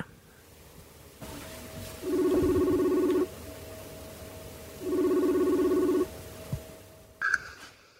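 Two rings of an outgoing phone call, each a steady, buzzy mid-pitched tone lasting about a second, separated by a pause over a faint hum, ending with a brief click.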